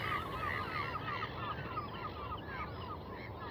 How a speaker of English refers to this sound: You think it's uh, seagulls, some yeah. type of seagull? Maybe black-headed gulls. Yeah. Anyway, there were there was a riot because they were mobbing a predator and seeing it on its way. But it sounds like they're settling down a bit now.